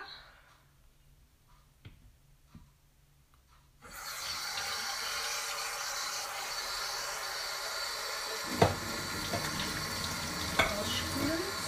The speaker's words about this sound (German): Das heißt, ich gehe jetzt her, nehme die Teekanne, fülle, fülle diese mit Wasser